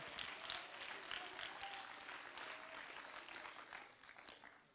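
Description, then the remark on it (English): A church audience claps steadily throughout in praise of the Lord, a dense wash of many hands at a fairly consistent level, with a few faint voices mixed in and the clapping thinning slightly toward the end. “Somebody clap your hands and let's give praise to the Lord right now.”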